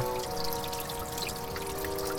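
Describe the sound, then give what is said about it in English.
Steady splashing of water from a fountain trickling into a pool, a continuous even wash of sound at moderate level with no voices over it. “If somebody's fountain. Hidden behind there?”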